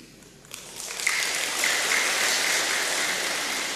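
Applause from an audience builds over the first second into a steady, dense wash of clapping that stays fairly loud and continuous to the end, with no voices.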